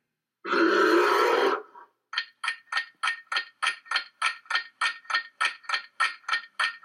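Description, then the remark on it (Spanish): A bear lets out a loud, rough growl lasting about a second, then a steady run of quick, rhythmic huffing grunts, with no voices. “¡El oso! El oso, claro que sí.”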